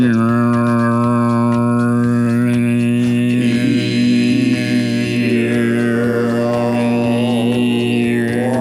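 A steady, droning low voice holds one pitch while a thin whistling overtone wavers above it, an untrained attempt at Mongolian throat singing sustained loudly and continuously for the whole stretch.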